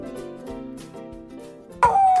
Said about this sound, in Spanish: Entre ladridos y aullidos. Estás durmiendo tomando una siesta. Todo es paz hasta que a tu perro le da por ladrar.